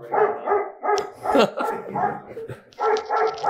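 A dog barks loudly in a quick rhythmic series of sharp woofs, with a short pause midway before another run of barks.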